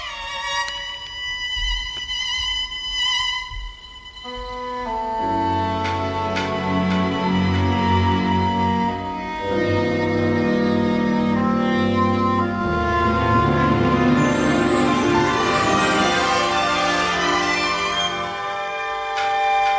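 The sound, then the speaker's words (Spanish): Orchestral music from a dramatic ballet, with sustained strings and winds, building from a thinner opening into a full, rich ensemble texture with a guitar woven in; steady and fairly loud, no voices. “Vamos a escuchar un fragmento también de otra composición tuya del ballet dramático La Bella Otero”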